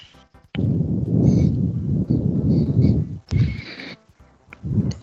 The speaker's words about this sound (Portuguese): A gente ouve, só que tá bem picotado, cara.